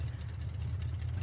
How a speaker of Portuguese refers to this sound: Tem toda uma história que esse barulho que a gente tá ouvindo, na verdade, é de uma moto não de um carro, sabiam, né?